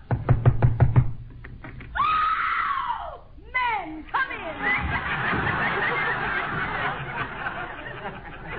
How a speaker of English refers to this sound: Well, here's Tessie Tinfoil's house. I hope she's home. Go ahead and knock.